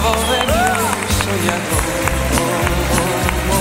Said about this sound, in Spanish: un aplauso para él.